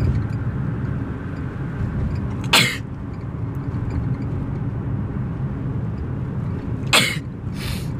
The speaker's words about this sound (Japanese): 失礼あこのくしゃみのメカニズムとかも知りたいですね